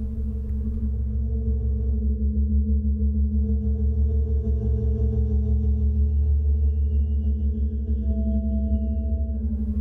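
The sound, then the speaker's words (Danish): A steady tone from a handmade portable organ pipe, voiced by an ordinary whistle, drones on for about ten seconds, loud, with a low, rich hum and a higher pitch entering near the end; the pitch depends on the length of the air column. No one speaks. “Ja, og så øhm, kan man så ændre tonen ved at ændre længden på søjlen.”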